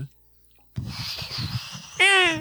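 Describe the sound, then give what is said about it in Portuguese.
After a brief silence, a voice makes a breathy, hissing whoosh to mimic ocean waves. The sound swells and holds for over a second, then ends in a short, loud voiced cry. “é muito bom a fazer o som das ondas do mar,”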